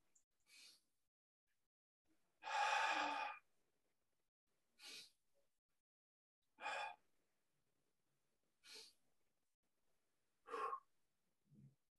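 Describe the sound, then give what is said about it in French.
A person doing a breathing exercise with one hand on the chest and one on the abdomen: slow, airy breaths, one long heavy exhale followed by shorter inhales and exhales spaced a couple of seconds apart, with quiet pauses and no talking. “Une main ici au niveau du torse, une main au niveau de l'abdomen et on va sentir notre respiration.”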